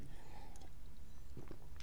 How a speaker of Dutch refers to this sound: slokje water weer. Heeft met de vochtigheid te maken.